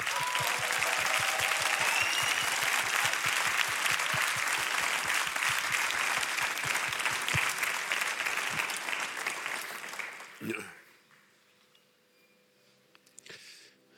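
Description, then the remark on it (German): A crowd gives a big round of applause, clapping loudly and steadily for about ten seconds, a dense wash of overlapping hand claps that fades out abruptly, followed by a near-silent stretch with a few faint sounds. “Komm, lass uns mal Andreas einen richtig großen Applaus geben.”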